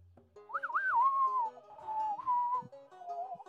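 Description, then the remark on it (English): A person whistles a short, wavering tune, the melody sliding and bending between notes in a lonesome, Western-style way, with no talking over it. “Um, and he'll just start whistling.”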